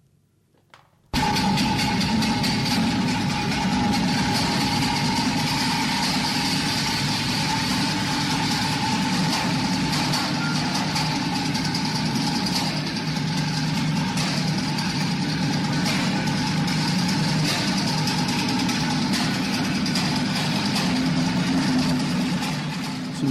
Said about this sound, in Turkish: Ve bu da bizim bu kazı makinemiz olacak.